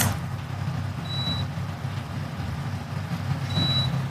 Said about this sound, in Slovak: Vidíte, ja sa snažím tu aj vypnúť tú klimatizáciu, ktorá ma zjavne neposlúcha.